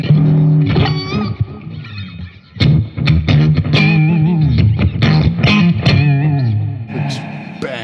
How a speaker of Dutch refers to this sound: Bang, het knalt ja. is een gek. Lijkt toch harder dan die andere gitaar. Ja, klopt. ja, door die eh, felheid of zo. Heel hard. Niet goed voor de oren, dit.